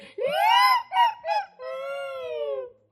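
A chicken calls out in one loud, drawn-out crow: a long rising note, two short bursts, then a long sustained tail, with no talking.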